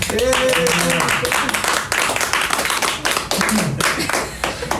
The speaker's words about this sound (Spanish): Bienvenidos a La Terraza de Emiliano. Aplaudan, chicos.